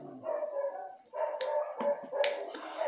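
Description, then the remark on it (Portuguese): Dogs barking in a steady run of repeated barks, mid-pitched with a sharp, rough edge, moderately loud and without speech over them. “Os cachorros querem comentar comigo, mas vambora.”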